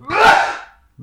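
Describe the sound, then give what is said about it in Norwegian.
A single loud, explosive sneeze bursts out and fades over about half a second, followed by a brief low murmur of voice. “Jeg kan nyse ganske høyt.”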